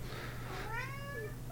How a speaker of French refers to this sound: Euh, Dave, euh, le monde est habitué, des fois, il l'entend dans le podcast, c'est mon chat.